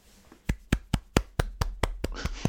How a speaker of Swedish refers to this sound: Jag applåderar av lycka.